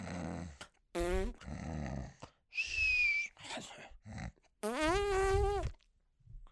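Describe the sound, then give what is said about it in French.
A voice mimics a woman snoring and farting in her sleep at night: rough, buzzy snorts and raspy bursts, ending in a long, rising squeaky blurt, fairly loud with no real speech. “est en train de ronfler, puis elle est en train de péter, juste comme...”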